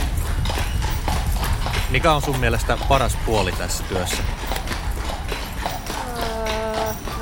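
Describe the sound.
Steady clip-clop of horse hooves on a hard surface, rhythmic, continuing underneath people talking in the foreground.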